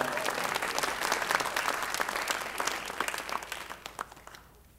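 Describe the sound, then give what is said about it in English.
After a prayer, a crowd of people applauds in a dense, steady wash of many hands clapping, thinning out toward the end as the last scattered claps fade away. “Let's hear it again”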